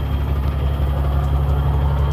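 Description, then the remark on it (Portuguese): A heavy truck engine idles with a steady, low, throbbing rumble that holds at an even loudness throughout, with no voices present. “O caminhão chegou, morreu. Engoliu o, motor, o caroço.”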